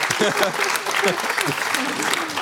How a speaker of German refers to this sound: Mega clever! Bravo! Applaus! Applaus für eine sehr gute Idee.